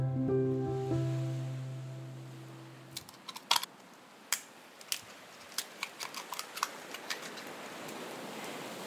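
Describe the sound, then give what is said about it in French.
Light rain by the sea at Bouin, facing the Noirmoutier peninsula: a soft, steady hiss of wash with scattered sharp ticks of drops landing, following a fading sustained musical tone at the start. “Nous sommes à Bouin, au bord de la mer, face à la presqu'île de Noirmoutier, où une pluie fine plante tout de suite le décor.”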